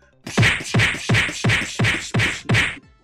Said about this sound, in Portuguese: Parece aquele, aquele filme do Bruce Lee contra todo mundo, que fica só fazendo o som do soco.